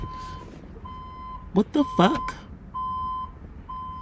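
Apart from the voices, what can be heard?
vehicle reversing warning beeps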